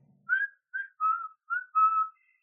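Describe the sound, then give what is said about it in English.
A series of five short whistled notes with brief pauses between them, clear, forming a simple rising and falling tune with no one speaking. “So you hear this deep and like a whistle”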